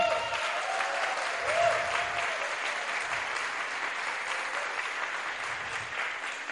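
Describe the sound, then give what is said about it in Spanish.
An audience at a Free Enterprise event claps steadily for themselves for being there, a dense wash of many hands at an even, sustained loudness with no voices standing out. “Y por eso un aplauso para ustedes hoy por estar aquí.”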